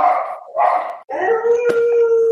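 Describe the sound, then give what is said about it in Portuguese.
A dog howls loudly in long, drawn-out wails, the last one rising into a steady sustained tone with a sharp click partway through. “Porra, tá uivando forte, hein?”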